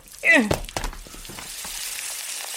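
A smartphone bubbling and sparking: a sharp burst with a brief squealing chirp, followed by a steady, fizzing crackle and hiss that sizzles on to the end.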